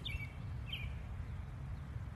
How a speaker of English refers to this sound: And so this misty afternoon, the cars are still rolling up and down the road, the birds are still singing, and God is still in control.